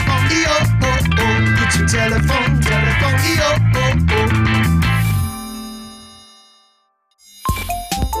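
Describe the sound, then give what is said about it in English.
A bright, jingly electronic phone ringtone plays a busy musical melody for about five seconds, then fades into a brief silence before a new chime-like tone starts. “The phone is ringing.”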